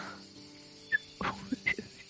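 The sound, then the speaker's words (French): Someone tries to whistle back a melody they heard, but manages only a few short, thin whistled notes broken up by breathy hisses of air, quiet, with faint background noise underneath. “Alors, tu sens qu'effectivement, tu as du mal à siffler et il n'a pas l'air d'être particulièrement satisfait par ton, par ton sifflement.”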